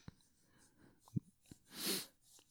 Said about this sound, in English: God damn, there I go with the sniffing shit. I'm sorry.